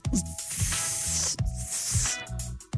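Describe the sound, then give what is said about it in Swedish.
A person imitates the sizzle of a hot grill with a loud, steady hiss, broken by brief pauses and low throaty breaths. No words are spoken. “Nej, det är lite grann ljudet av en stekhet grill, för än är säsongen inte över.”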